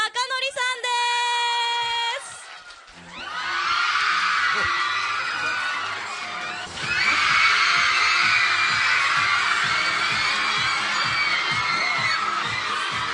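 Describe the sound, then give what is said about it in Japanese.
A large crowd at an event in Okayama cheers and screams loudly and without pause as a guest comes on stage, the roar swelling even louder partway through, after a brief high-pitched tonal sound at the very start. “聞こえないねもう聞こえない声援で盛り上がってますかありがとうございます声が声が聞こえない”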